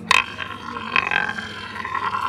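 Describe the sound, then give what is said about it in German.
A rainbow-painted toy spinning top is set down with a couple of sharp clicks, then spins with a steady, mid-pitched whirring hum, faintly rattling, at moderate volume with no voices. “Wenn ich den jetzt hier laufen lasse, ich setze mal hier auf.”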